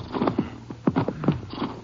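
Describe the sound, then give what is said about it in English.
Horses shuffle and clop, with short snorting whinnies breaking through in a few uneven bursts, as their riders stop to leave them near mountains by a river. No one speaks. “We can't go in very far in the horses. Maybe we should leave them right here.”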